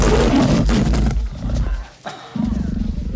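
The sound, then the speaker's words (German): A hellhound monster lets out a loud, ragged roar, then drops into deep, rumbling growls after a brief pause, with no talking. “Man muss sagen, also er wirft die Mäntel in den, in den Raum den und da ist dieser Hund und, und der wirft er die auf den Kopf ja. und dann der Höllenhund kommt raus.”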